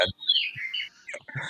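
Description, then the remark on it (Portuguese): A recorded graúna song played by a clock made for learning bird songs: a bright, sliding whistled phrase followed by a few short chirpy notes, clear, with no one talking over it. “é esse aí é uma graúna.”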